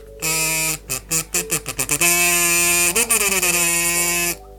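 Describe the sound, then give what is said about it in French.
A buzzy kazoo is tested: a quick run of short choppy notes, then a long sustained tone with a brief pitch dip and swoop before it cuts off. No one speaks. “alors c'est un petit casou”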